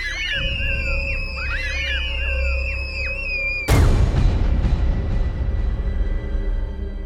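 Several shrill children's voices scream and wail in hysteria over one another for a few seconds, then a sudden loud crash cuts in and leaves a rumbling, noisy tail.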